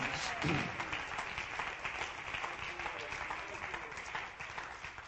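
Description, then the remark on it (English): An audience claps their hands to the Lord in praise steadily for several seconds, a dense wash of many hands with faint voices murmuring underneath, fading slightly toward the end. “One more time, would you clap your hands to the Lord and give him praise?”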